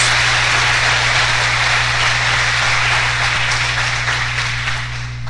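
Sustained applause from an audience, a dense wash of many hands clapping at a steady loud level for several seconds, easing slightly at the end, with no talking over it.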